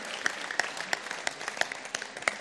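A crowd applauds steadily for a couple of seconds for an audience member called up onto the stage, a dense patter of many hands with a few louder claps standing out at an even, regular beat. No one speaks over it.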